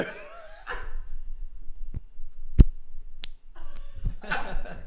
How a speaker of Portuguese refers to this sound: ele puxava a pele da barriga dele assim, Fininha, assim. Né? Aí soltava e fazia tipo